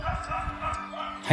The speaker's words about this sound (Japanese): 犬うるさいよ、うるさいよ、犬うるさいよ。